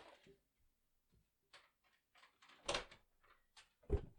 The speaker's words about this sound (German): So, ich werde jetzt kurz meine Tür zumachen, weil dann vielleicht äh, heilt es nicht so, ich weiß nicht.